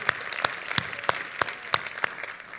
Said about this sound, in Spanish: Tiene un aplauso para el Señor, mi hermano, en esta tarde. Aleluya.